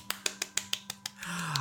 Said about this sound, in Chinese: 哦，虽然说现场只有我一个人，好，掌声感觉比较稀落一点点，但是不过也没有关系。